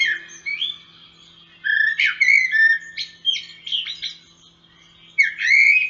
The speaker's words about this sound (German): Amsel 45 Minuten vor Sonnenaufgang.